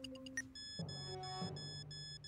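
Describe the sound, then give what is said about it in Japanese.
A bug detector bought in Akihabara gives off quick electronic beeps, then a steady, buzzing electronic tone that holds for about two seconds as it reacts faintly to radio waves from a bugging device hidden inside a wall power outlet in a home. The sound is quiet, with no voices. “盗聴器が発する電波に反応してわずかに音声が鳴っているここだそれはコンセントの内部に仕掛けられていた”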